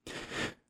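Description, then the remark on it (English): A single quick sneeze, fairly loud, a breathy burst of about half a second that tails off quickly. No one speaks. “Bless you”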